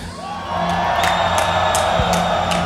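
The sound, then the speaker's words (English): A large crowd in Mexico cheers loudly and steadily, with shrill whistles and whoops rising above the roar and a few sharp claps scattered through it. “And of course, make some noise”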